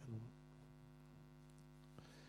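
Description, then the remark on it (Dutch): A steady electrical mains hum drones continuously at a low, even level, with a brief louder swell at the start and a faint click near the end; no one speaks. “Maar even kijken hoor, want eh, ik hoor een brom. We moeten even kijken waar die bron vandaan komt.”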